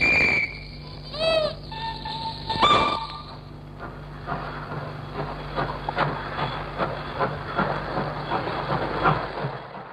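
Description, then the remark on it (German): Train sounds in an old, muffled recording made in May 1948 at the Gare de Batignolles railway station in Paris with a mobile phonograph: short whistle blasts at the start, then a steady rhythmic clatter of wheels on rails that keeps rolling along without any voices. “begibt sich dafür im Mai 1948 auf dem Pariser Bahnhof Gare de Batignolles ausgerüstet mit einem mobilen Phonographen, mit dessen Hilfe er die vielfältigen Bahnhofsgeräusche einfängt.”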